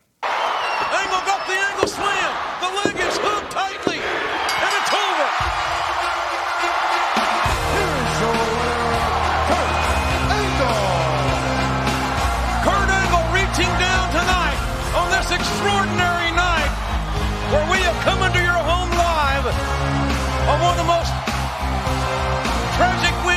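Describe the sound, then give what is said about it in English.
A packed arena crowd at a WWF wrestling event roars and chants "USA" in unison, celebrating Kurt Angle. It is a steady wall of many voices, with rising shouts over a low, booming rumble that stays loud from start to finish. “The big USA chant as we go off the air.”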